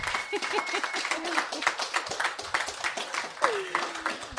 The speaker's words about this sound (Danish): skal vi give hende en klapsalve?